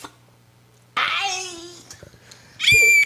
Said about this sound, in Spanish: Digo, sí, doble grito. Absurdo. Parece Jamie Lee Curtis.